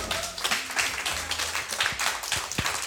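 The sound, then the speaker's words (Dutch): An audience applauds steadily, a dense wash of many hands clapping at a fairly loud, even level, with a few sharper individual claps and some faint voices mixed in. “Dames en heren, mag je nog één keer een geweldig applaus voor”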